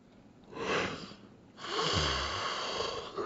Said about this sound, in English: Sorry, I don't know why. I, have been fighting yawns for like the last two minutes of recording.